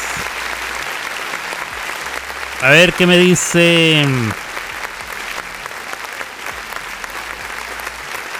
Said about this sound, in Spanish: No, no era de risas, era de aplausos. No era de risas.